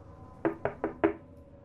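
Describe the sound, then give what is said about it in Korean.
Four quick, evenly spaced, sharp knocks on the rear trunk-side window of a car parked at a dark roadside rest area at night in thick fog, with quiet background and no voices. “트렁크 쪽 창문에서 노크 소리가 들려왔다.”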